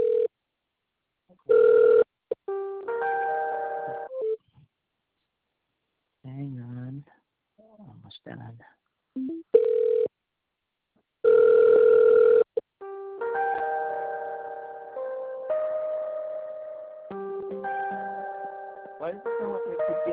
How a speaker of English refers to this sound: And why does it sound like I keep getting connected and disconnected? Um, yeah, I'm just trying to connect you to a license agent. Seems uh, they're not available.